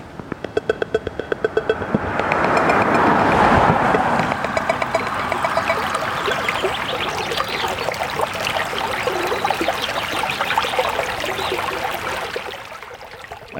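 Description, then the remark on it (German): A small stream, the Schweinitz, trickles and babbles steadily in a forest at the German border with Czechia, a continuous bright watery rush that swells in after a couple of seconds and carries on evenly to the end, with no voices. “Bächlein, Vögelchen und eine große Schneise durch den Wald.”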